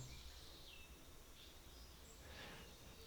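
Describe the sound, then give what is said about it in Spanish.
Faint bird chirps drift over a quiet rural background on the outskirts of the city of Armenia in the coffee-growing region, with a few soft calls rising briefly and no one speaking. “Así es, no, feliz, eh, con una vista muy bonita, muy verde, y se escuchan los pajaritos.”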